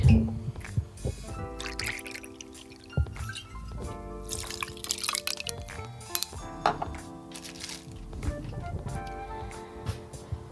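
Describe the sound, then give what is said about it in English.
A shot of Benriach whisky pours into a short glass filled with ice in a steady trickle with small drips and clinks, over a soft sustained tonal background. “So just fill a glass with ice. It can be as tall a drink as you want. I've got quite a short one here, but it's quite good tall. Do a shot of Benriach.”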